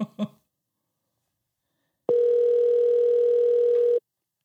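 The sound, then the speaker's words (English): After a brief murmur of voice, a loud, steady telephone dial tone hums for about two seconds as a call is placed, one continuous unbroken pitch that cuts off abruptly. “Let's call him. God, it's loud.”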